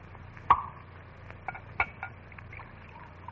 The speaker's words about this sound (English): Blast my eyes At this glass ain't gone and filled itself to the brim with ginger ale.